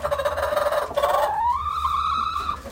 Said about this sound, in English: Are you hungry? He has seven chickens in his backyard.